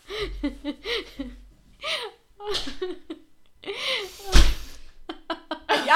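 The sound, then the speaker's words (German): A door opens with a single solid thunk partway through, while people chatter and laugh around it. “Jetzt kommt die Tür wieder auf.”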